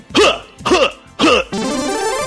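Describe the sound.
A voice mimics a video game character's pain grunt, the sound of the character suffering: three short, loud, strained bursts in quick succession, then a longer sustained groan, with no other talking.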